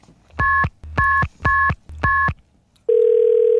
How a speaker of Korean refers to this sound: 띠띠띠띠 또르륵 네, 전화 거는 소리입니다. 네. 일부에 나가는 노래 듣다가 이 소리 나면은 오 어떤 노래에서 들었어요 하고 노래 제목이나 가수 이름을 보내주시면 되는 거예요.